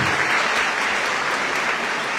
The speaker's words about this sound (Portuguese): Vamos aplaudir novamente